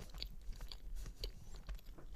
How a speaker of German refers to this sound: Lassen wir dich noch ein bisschen kauen.